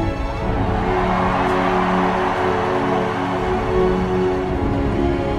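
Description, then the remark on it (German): A short musical jingle plays at a steady, fairly loud level, with sustained droning tones and a dense, full texture. There is no talking over it. “Nochmal Jingle spielen, meinst du?”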